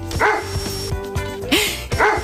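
A dog barks three times in loud, sharp woofs spaced about a second apart, over a steady rhythmic beat with a sustained tone underneath.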